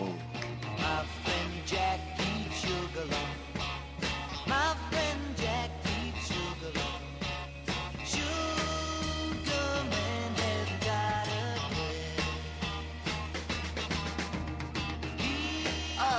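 A loud rock song plays as a recording, with a steady driving beat, heavy bass, and dense guitar and cymbal sounds filling the mix throughout, no talking over it.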